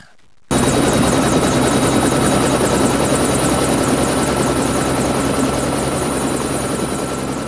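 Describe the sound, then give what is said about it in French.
A helicopter roars loudly and steadily after a brief quiet start, its rotor chop pulsing rapidly over a dense engine whine, continuous with no voices. “Si j'étais un véhicule, je serais un hélicoptère.”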